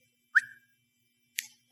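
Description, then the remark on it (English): Two short, sharp whistles about a second apart, a person whistling to sheep in a field while trying to catch them. The first has a bright, sliding tone and the second is breathier. No one speaks. “field trying to catch these sheep, and I'd holler to them and I'd whistle.”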